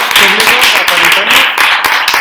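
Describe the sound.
Loud, sustained audience applause, a dense crackle of many hands clapping steadily for a couple of seconds, with voices faintly audible underneath.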